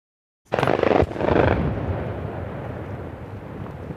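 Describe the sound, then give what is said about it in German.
A heavy coal-mine blast in a forest in India erupts suddenly after silence, a broad booming burst followed by a long rumbling roll that echoes and slowly fades across open terrain, with no voices. “Wieder erschüttert eine Explosion die Waldidylle.”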